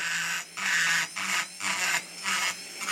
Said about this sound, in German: Und man kann sehr schön sehen, wie die, wie die Späne hier wegfliegen. Ne? Es ist eine Fräsmaschine, die er gebraucht von einem Dentallabor gekauft hat. Damit fräst er die Ränder ab, die sich beim Abgießen manchmal bilden.